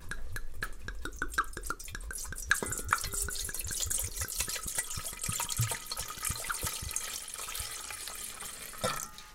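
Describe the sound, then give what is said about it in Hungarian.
Red wine is poured into a pot that already holds white wine, for a hot spiced wine, a steady splashing trickle with quick irregular drips and gurgles throughout, fairly loud and continuous with no voices. “Tehát akkor a fehér már ott van a lábosban, jön a vörös, és akkor ugye most megoldhatjuk azokkal a fűszerekkel, amit felolvasott az előbb”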